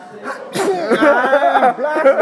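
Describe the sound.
A single sharp, breathy sneeze bursts out near the start, quickly followed by voiced sounds that resemble laughter or talking.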